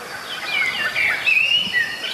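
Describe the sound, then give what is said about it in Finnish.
A Eurasian blackbird sings right by the microphone in a small wood, clear fluting whistled phrases rising and sliding over a soft hiss of outdoor ambience, with a European robin and geese in the background and no voices present. “Kyllä, ja Mustarastas on ihan mikrofonin lähellä.”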